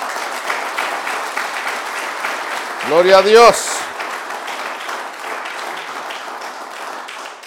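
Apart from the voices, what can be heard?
audience clapping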